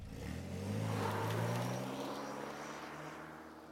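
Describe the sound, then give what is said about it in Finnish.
A car engine drones steadily in the distance, its pitch swelling upward and then easing back down as it passes, a smooth continuous hum with no voices. “kaukaa auton tasainen nouseva ja laskeva rahina.”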